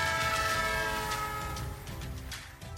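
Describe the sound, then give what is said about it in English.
A loud, sustained train horn blares over the steady rumble and clatter of a rolling train, with no voices present. “So hop on our magic choo choo train to nowhere and let's talk some California politics.”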